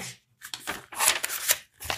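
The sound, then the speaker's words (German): Crisp paper rustling in several quick bursts as a sheet of paper is taken out to draw on. Fairly soft, with brief pauses between the crackles and no voices. “wenn, wenn ihr einfach jetzt ein Blatt Papier rausholt.”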